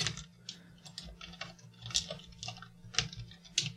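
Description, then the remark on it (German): Soft, quick keystrokes on a computer keyboard, typed very gently to keep the noise down, a run of light irregular clicks, fairly quiet over a low steady hum. “Ich komme übrigens wirklich dämlich mittlerweile beim Tippen vor, weil ich versuche hier die Tastatur nur zu streicheln, damit unser Sensibelchen sich nicht wieder beschwert.”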